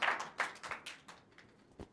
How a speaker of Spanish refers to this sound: Un aplauso